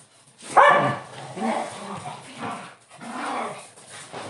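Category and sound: animal, dogs barking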